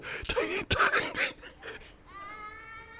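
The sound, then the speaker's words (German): A baby cries outside, a thin, drawn-out wail rising after a moment of voices and laughter, then holding steady for the final second. “ja, das ist ein Baby draußen, was weint.”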